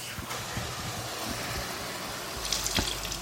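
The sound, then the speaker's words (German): A steady stream of water is poured into a cooking pan holding onions, oil, paprika powder and milk, a broad hissing, splashing pour that swells slightly toward the end, with no one talking. “So, kann aber noch mal ein bisschen Wasser dazu.”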